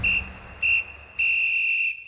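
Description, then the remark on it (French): A referee's whistle signals the end of the 2002 Champions League final, won by Real Madrid on 15 May 2002. It blows three times: two short blasts followed by a long, sustained one, shrill and clear above a faint crowd murmur. “Au bout d'un final haletant, l'arbitre siffle enfin la fin du match.”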